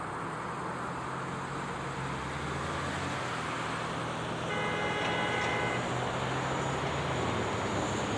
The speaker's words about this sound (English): What are you honking? It's not time to cross yet.